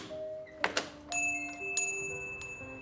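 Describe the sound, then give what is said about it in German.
A small bell fixed at the top of a shop's door frame jingles several times with bright, ringing tones that hang in the air, after a couple of quick clicks, as the door opens. It's fairly quiet, with no voices. “Beim Öffnen der Tür begrüßt sie das freundliche Klingeln des kleinen Glöckchens, das am oberen Rand des Türrahmens befestigt ist.”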